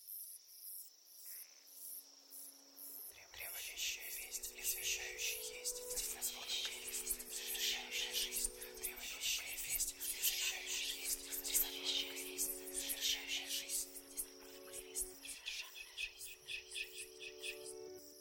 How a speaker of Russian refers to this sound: Смотри, сосны такие высокие и так шумят, как будто шепчутся.